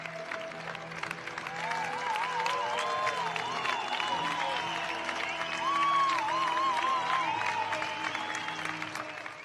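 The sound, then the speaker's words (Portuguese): Sustained applause from a crowd in tribute to musicians who died, including several well-known rock musicians; dense steady clapping that holds for the whole stretch, with some faint cheering and whistles mixed in and a brief swell near the middle. “A estes, uma salva de palmas.”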